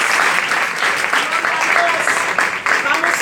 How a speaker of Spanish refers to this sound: Dios les bendiga. Denle un aplauso Dios. Aleluya. Gloria a Dios.